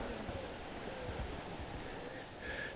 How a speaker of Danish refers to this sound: Der er sådan et lille vandfald han har du set det? Åh oh, ja. Jeg kan høre, det risler.